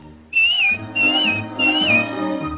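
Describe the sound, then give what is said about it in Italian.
A person whistles three short, bright phrases in quick succession, each with a little upward bend, over a soft low musical backing with no talking, in a clip from the Disney film Pinocchio. “E tutte le volte che hai bisogno di me, fai un fischio, così come così?”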